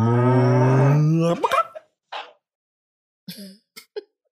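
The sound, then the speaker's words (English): A person imitates a cow with one long, low, droning moo lasting over a second, followed by a few short, breathy throat sounds and brief clicks. “And out the back, you see a large black and white cow uh, who's just standing there, kind of like pawing at the ground.”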